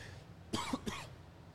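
human body sound, cough and throat clearing

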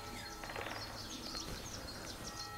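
bird, woodpecker calling

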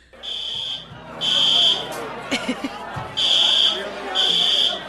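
signal or alarm, fire alarm going off

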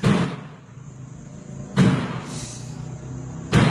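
household object, door opening and closing

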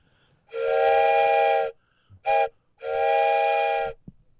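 vehicle, steam train whistle blowing

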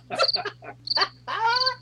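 animal, frogs croaking

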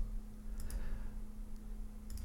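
household object, computer mouse clicking

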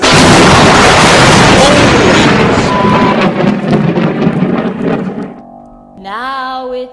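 nature, thunderstorm with thunder

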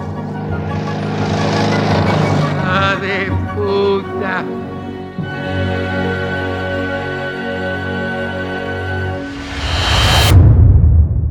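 vehicle, car passing by

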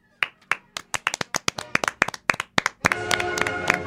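crowd, clapping applause

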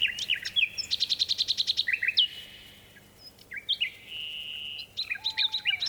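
bird, nightingale singing

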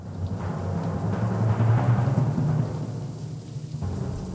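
nature, rain and thunder

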